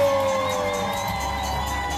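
A crowd applauds and cheers with a steady, dense wash of clapping and voices, loud and continuous for the whole two seconds, with scattered whoops rising above it.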